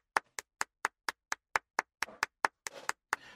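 Brisk, evenly paced hand clapping, around fifteen sharp claps in a few seconds, with a bit of extra scattered clapping blending in toward the end; no one speaks.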